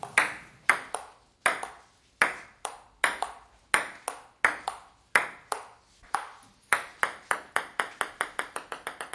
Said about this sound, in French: Vous avez entendu un jeu de ping-pong et à un moment donné, la balle, elle tombe. Vos oreilles vous disent que quelque chose ne va plus.